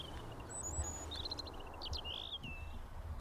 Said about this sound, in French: Euh, alors là, justement, euh, illustration, on entendait le chant du rouge-gorge. Et là, je peux citer euh, Jacques Penot, qui disait Pour mémoriser le chant du rouge-gorge, c'est un chant improvisé, varié donc, avec un son plutôt flûté,